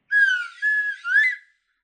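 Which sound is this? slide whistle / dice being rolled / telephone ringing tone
slide whistle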